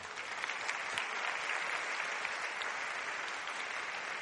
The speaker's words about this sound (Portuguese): Você acredita nisso? Aplauda ao nome do Senhor.